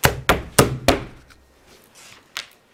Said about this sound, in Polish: A teraz robimy krok naprzód. I w tym momencie słychać tylko jeden krok. A to znaczy, że kompania jest dobrze wyszkolona. Nie słychać.